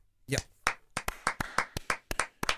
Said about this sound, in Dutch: En toch vind ik het ongemakkelijk. Klappen na een, uh, een nieuwsoverzicht.